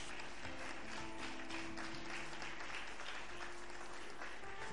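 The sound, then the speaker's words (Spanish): An audience applauds steadily, a dense wash of many hands clapping at once that stays loud and even from start to finish, with no voices standing out. “Aplaude esta palabra que nos abre los ojos.”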